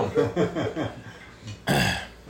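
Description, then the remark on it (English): A run of four or five short, rough coughs in quick succession, moderately loud, followed after a brief pause by one harsher, noisier cough burst. “I said I'd rather keep the cough than to unwrap that thing you've been yeah.”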